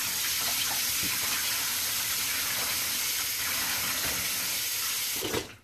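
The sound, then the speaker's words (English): A tap runs steadily, a continuous hissing stream of water splashing into a sink at moderate volume, with no one speaking, before it cuts off near the end. “Let me turn this water on real quick.”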